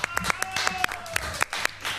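A short burst of applause in the studio of the radio show Todo Pasa on Urbana Play 104.3: a few hands clapping in sharp, uneven bursts over a faint steady tone, no voices.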